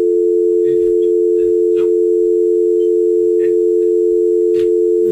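A steady, loud telephone dial tone drones continuously after a call has been hung up, with faint background shuffling and muffled knocks underneath but no talking.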